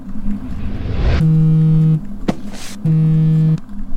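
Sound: phone ringing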